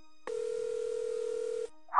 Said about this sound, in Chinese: 然后奸笑着拿起电话，再次摁了重拨。